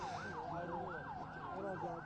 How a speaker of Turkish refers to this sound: Böyle bir kötü tecrübenin ardından işte ambulansta sirenlerini belki duyuyorsunuz